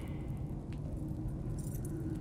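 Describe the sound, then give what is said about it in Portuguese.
Faint metallic jingling of keys as they are put inside a hat, over a steady low rumble, with a soft clink early on and a brighter, brief shimmer of keys toward the end. “Arnaldo coloca as chaves dentro do chapéu e o devolve à cabeça.”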